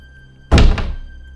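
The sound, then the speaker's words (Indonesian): A hotel room door slams shut by itself with a heavy, loud thud, followed by a quick second knock as it settles into the frame, then a short fading rumble. No voices are heard. “pintu kamar 111 ketutup kenceng banget dengan sendirinya.”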